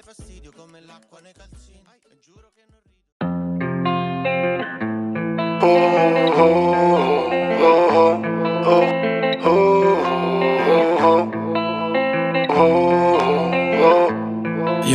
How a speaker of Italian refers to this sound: Questa è la loro canzone più ascoltata su Spotify.